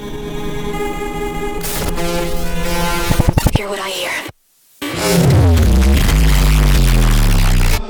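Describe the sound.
An electronic music remix plays loud and dense, with sustained synth chords and a pulsing rhythm, a brief drop to near silence, then a heavy return with deep bass and a spoken voice over the music.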